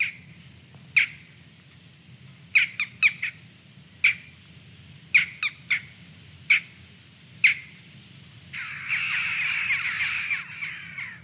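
Western jackdaws in Flanders give sharp, short calls in scattered bursts, some doubled or tripled, over a low background rumble, ending in a dense chattering of many birds together.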